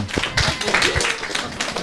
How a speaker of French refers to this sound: Mais dis donc, les petits, là, on peut applaudir.